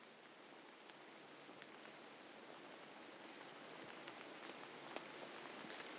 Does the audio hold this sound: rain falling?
yes